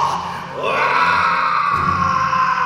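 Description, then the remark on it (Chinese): A voice imitates the Monster King of a story roaring in anger after breaking free from a block of ice: one long, loud, harsh bellow that rises in pitch and holds steady for a couple of seconds without any words. “恢复了自由的怪兽大王怒吼一声，他的身体开始不断变大，变大！”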